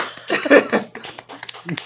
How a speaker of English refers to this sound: This is a very special day for us. Let's everyone uh, give yourselves a round of applause.